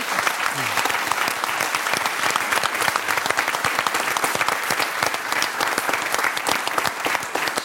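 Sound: studio audience applause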